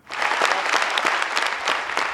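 Sustained applause from a large crowd giving a standing ovation as Jonas Gahr Støre walks onto the stage at Folkets hus on 14 June 2014, a dense, steady wash of many hands clapping at full volume throughout, with no voices standing out.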